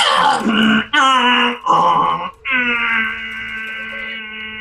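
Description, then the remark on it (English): A voice mimics a dial-up internet modem's handshake, with three short, choppy warbling bursts giving way to a long, steady, buzzy tone, loud. “Uh, you you try and hail the space whale, and uh, there is a sound that occurs, but it's the it's the sound of uh, dial-up internet.”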